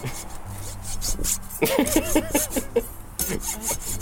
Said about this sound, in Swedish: Okej, okay, då testar vi sågen här då.